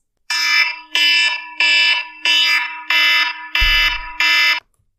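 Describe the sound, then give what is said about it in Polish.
A harsh alarm clock ringing in loud, buzzy bursts, seven rapid pulses in a steady rhythm, piercing, with no voices. “I nikt z nas nie lubi budzić się wkurzony, rozdrażniony, zirytowany porankiem, dlatego bardzo ważne jest to, jakiego budzika używamy. Czy jest to na przykład taki odgłos?”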